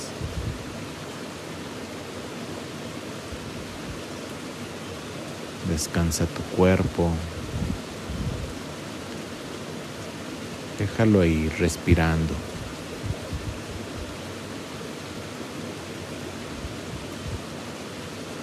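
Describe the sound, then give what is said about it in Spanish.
Steady rushing river water fills the background with a broad, even hiss, continuing unbroken while a soft voice speaks calmly in two short stretches over it. “déjate acompañar por el sonido del río para hacer contacto con el fluir que eres.”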